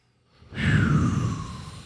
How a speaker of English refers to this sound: And that means breathing with our audience. Breathe.